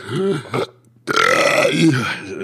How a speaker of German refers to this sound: Wahrscheinlich einfach so auf der Brust, weißt du? Das war kein, kein Kommentar dazu, das war nur ein ganz normaler Rülps.